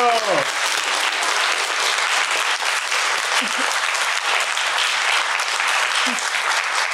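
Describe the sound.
An audience breaks into sustained applause, a dense, steady wash of clapping that stays loud for the full seven seconds, with a brief voice at the very start.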